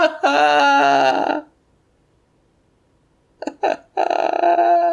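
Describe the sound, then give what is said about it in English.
A voice loudly imitates wailing, drunken sobbing: a long strained howl, a pause of near silence, then choppy gasps leading into another sustained sobbing cry. “And I'm just gonna sob into the night very loud, very drunkenly.”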